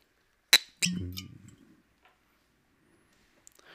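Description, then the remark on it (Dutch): A sharp cork pop as a whiskey bottle is opened, followed by a brief scrape and a light glassy clink, then near silence with a faint tick at the end. “onze eigen podcastlijn. Ontkurken.”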